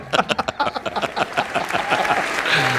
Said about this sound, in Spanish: Bravo, bravo a esos nadales, bravo. Otro aplauso para esos nadales